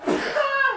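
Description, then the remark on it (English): A single sneeze bursts out, a short sharp blast of breath that trails off quickly, with no speech around it. “bless you”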